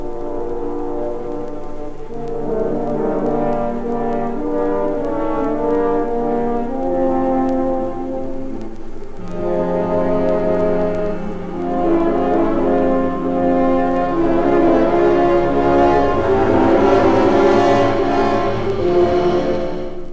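Three French horns play the Wolf's sustained, full chords that swell and shift to a new harmony partway through, a loud, mellow brass sound with no talking.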